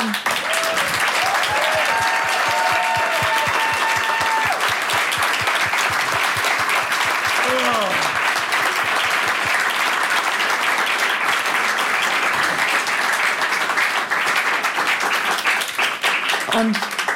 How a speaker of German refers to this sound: Applaus für die Mom.